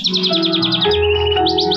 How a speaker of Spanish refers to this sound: Yo traje este pichón de pajarito que se cayó del nido. ¿No es gracioso, maestra?